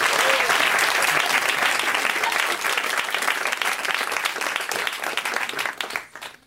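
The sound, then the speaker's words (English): A crowd breaks into loud, sustained applause for the guests on a show, dense overlapping claps filling several seconds before quickly tapering off at the end. “Round of applause for these folks.”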